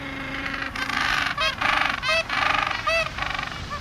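Gentoo penguin calls: loud, harsh honking brays repeated in rapid pulsing bursts, several overlapping calls rising and falling in pitch, with no talking.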